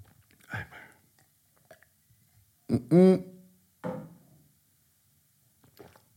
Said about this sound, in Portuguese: Vou dar aqui um golinho de água.